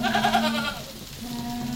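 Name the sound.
goats bleating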